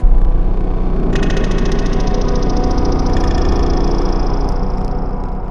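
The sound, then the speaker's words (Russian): An elevator's lifting mechanism drones loudly and steadily, creaking and clanking, with a rapid rhythmic grinding throughout and a thin metallic whine joining after about a second, as the lift carries a boy up to the surface. No voices. “И вскоре никаких лишних звуков, только скрип и лязг подъемных механизмов.”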